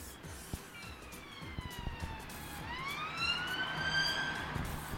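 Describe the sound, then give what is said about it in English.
A police car siren wails past in a London borough, its tone sweeping up and down and shifting in pitch as it goes by, fairly loud over steady traffic rumble, with no one speaking. “thought I'd wait for the police car to go by.”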